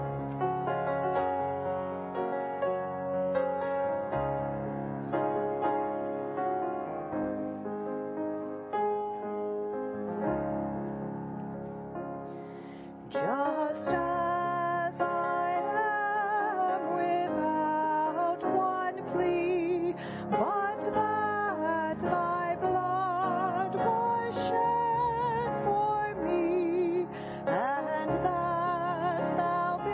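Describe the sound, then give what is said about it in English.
A standing audience sings the hymn Just As I Am, number 342, slowly in unison, sustained voices carried along by steady accompaniment, the singing filling out and growing fuller partway through, with no spoken words. “let's stand and sing number 342,”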